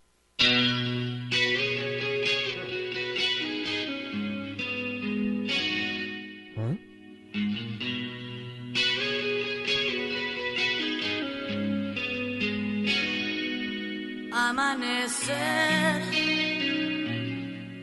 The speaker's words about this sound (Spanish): Yo nunca he escuchado hablar de esa canción. A ver, ¿qué será?